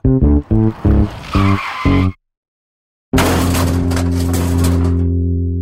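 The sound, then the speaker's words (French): A sports car such as a Ferrari, driven for fun, revs in several short, loud bursts, falls silent briefly, then roars steadily while tires squeal harshly, with no talking. “des voitures assez assez débiles, des Ferrari et compagnie, puis ils s'amusent souvent à accélérer sur les petites routes”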